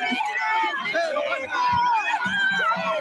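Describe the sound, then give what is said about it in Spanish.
A dense crowd shouts, clamors and pushes around the car carrying former president Alberto Fujimori as he leaves prison after 16 years, police trying to let the car advance; many overlapping voices rising and falling in a loud, chaotic din with scuffling movement underneath. “aquí en medio de gritos y de pujones, estamos tratando de observar hacia adentro al presidente Alberto Fujimori.”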